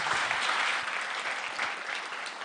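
Sustained applause from an audience welcoming a speaker, a dense, even wash of many hands clapping at steady loudness throughout, with no voices standing out.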